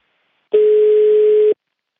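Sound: telephone ringback tone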